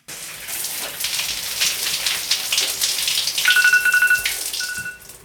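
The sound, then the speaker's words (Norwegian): A shower runs steadily in a home bathroom in Risør, Norway, with a dense, hissing spray of water throughout. Near the end, a steady electronic tone from an alarm used to cut shower time to five minutes sounds twice over the rushing water. “står på badet hjemme i Risør og viser oss hvordan alarmen hjelper henne med å korte ned på dusjetiden.”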